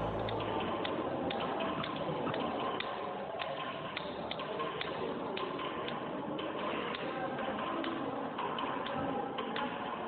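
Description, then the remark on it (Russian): A steady mechanical ticking, the signal of a precision navigation system, roughly two clicks per second, repeats evenly through the whole stretch over a constant bed of hissy background noise, with no talking. “Вот примерно так же звучала система точной навигации. Правда, сигнал звучал раз в секунду.”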